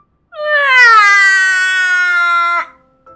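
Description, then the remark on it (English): A person reading a story aloud imitates the character Betty, a child, crying: one long, loud, high-pitched wail lasting about two seconds, pitch rising slightly then holding steady before cutting off abruptly. “Then suddenly, Betty cried.”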